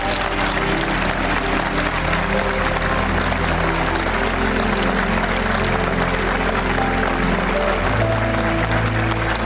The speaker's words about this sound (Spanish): Su entrañable amigo Lalo España, con quien compartía en la serie Vecinos, aprovechó su participación en el Tenorio Cómico en Monterrey para despedir a Octavio y con todo el cariño quisiéramos brindarle un aplauso a Octavio Ocaña.